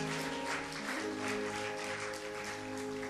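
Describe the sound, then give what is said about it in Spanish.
An audience applauding for Christ, a dense, steady wash of clapping that holds for the full few seconds over sustained, organ-like tones, with no one speaking. “Dele fuerte el aplauso a Cristo, hermano.”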